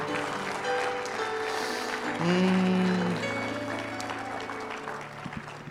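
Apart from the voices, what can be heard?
audience applauding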